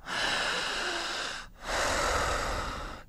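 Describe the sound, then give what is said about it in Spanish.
Two long, deep breaths, a loud airy inhale followed immediately by an equally long exhale, steady and deliberate with no talking, demonstrating a patient's breathing. “Y el paciente sigue respirando”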